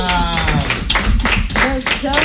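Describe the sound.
Steady applause for a guest doctor on the program Cambio y Fuera, a burst of hand claps with sharp, fairly regular peaks running under talking and a brief tonal voice throughout.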